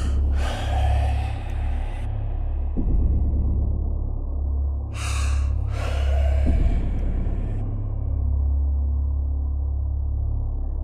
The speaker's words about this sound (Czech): To, co jsem předpokládal, že byla Kelsey, teď vydávalo namáhavý a chraptivý dech.